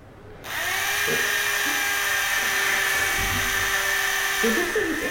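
A power drill starts abruptly and runs in one continuous high-pitched whine for nearly five seconds, its motor pitch wavering slightly as it bores into a wall.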